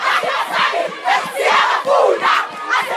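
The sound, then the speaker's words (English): A loud crowd of schoolgirls chanting together at a street protest, their high voices rising and falling in a steady, pulsing rhythm of repeated shouted phrases. “The schoolgirls' protests went global as they hit the streets, confronted school's authority, and explained on camera they had had enough.”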